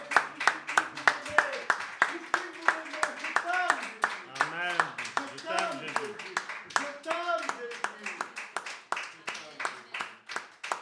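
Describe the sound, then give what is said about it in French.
An audience claps together in a steady, rhythmic beat, loud, while voices rise over it in shouts and song-like cries, applauding the Lord during a French-language worship service. “Est-ce que nous pouvons applaudir le Seigneur Applaudissez-le”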